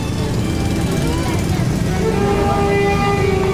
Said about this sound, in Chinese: 这个是我录到在街上的声音，好，也是音乐，但是萨克斯风。萨克斯风，来听听看吧。当然是在路边哈，所以有 还有机车的声音， 很多机车的声音这样。